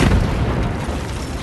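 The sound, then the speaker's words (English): A loud explosive blast in a narrow gauge railway quarry full of grey stone and big noisy machines: a deep boom at the start that rolls into a heavy, steady rumble of low noise for over a second, with no voices. “It's a loud and lively place, full of big noisy machines, swirling dust and explosive blasts.”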